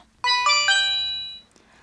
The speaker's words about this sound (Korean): 저녁 8시경 어플에서 알림톡이 떴습니다.